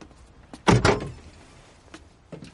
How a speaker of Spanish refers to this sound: Jesse abre el maletero.